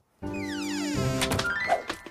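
A door is opened with a long, rising creaking groan, then swings shut again with a dull thunk and a couple of faint knocks after it. Fairly quiet, with no voices.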